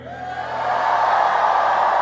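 An audience at a worship service erupts in a shout of faith, shouting and cheering, a dense wall of many voices that swells in the first second and then holds loud and steady.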